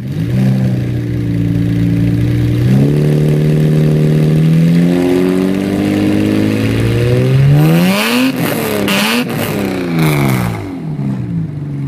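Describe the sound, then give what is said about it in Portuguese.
The V12 engine of a BMW 850i E31 revs up steadily, its harmonic tones climbing in pitch, then blips sharply through several quick revs before settling, loud with no talking. “Esse daí é o BMW 850i E31.”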